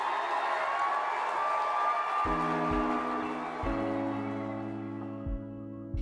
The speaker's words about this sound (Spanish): Un aplauso Anita para estas iniciativas.